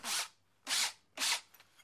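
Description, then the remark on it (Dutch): Three short, evenly spaced bursts of harsh, gritty drilling as a hole is drilled into the top of a stone, fairly loud, with a faint low hum continuing between them. “Maar hier bovenin, daar komt een gat en daar boor ik erin.”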